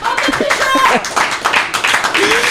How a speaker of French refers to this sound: Allez, on vous applaudit en tout cas.